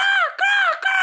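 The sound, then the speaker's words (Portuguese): A person's voice imitates a crow's caw three times in quick succession, each call loud and drawn out with a slight downward bend. “não vai fazer o barulho do corvo?”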